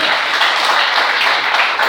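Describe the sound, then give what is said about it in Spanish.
A church audience applauds Christ during a morning service, a dense, steady wash of many hands clapping at full volume throughout, with no single claps standing out and no talking on top. “Denle el aplauso a Cristo esta mañana.”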